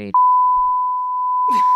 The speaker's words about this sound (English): Beep it again.